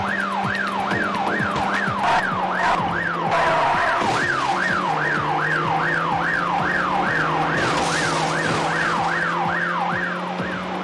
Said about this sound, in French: je vais couper les sirènes, ça fait trop mal aux oreilles sinon.